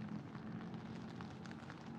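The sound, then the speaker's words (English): Steady rain patters down in a soft, continuous hiss, with scattered droplet ticks popping through, heard while walking outdoors in the rain. It's fairly quiet and constant throughout, with no voices present. “You like walking in the rain?”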